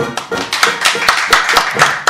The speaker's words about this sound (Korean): 큰 박수 주십시오.